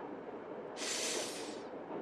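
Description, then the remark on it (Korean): Steady low rumble of an express train rolling along the rails, with a loud hissing rush swelling up in the middle before easing back into the continuous clatter. The train connects to a boat and stops at Canterbury. No one speaks. “천만에 이 열차는 켄터베리에서 멈추지.”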